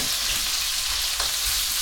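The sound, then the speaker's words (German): Fried potatoes sizzle in a hot pan without sticking, with a steady crackling sizzle that holds throughout and a brief stirring scrape near the middle. No one speaks. “Ich bin begeistert in dieser Pfanne, habe ich noch nie geschafft, dass die nicht anpacken.”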